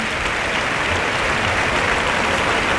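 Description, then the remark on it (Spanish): Sustained applause and ovation for the bullfighter Morante from a large crowd of about 6,700 spectators in a packed bullring, a dense, steady wash of clapping hands holding an even loudness throughout without pause. “Pues hay palmas, eh, Para ¿eh?”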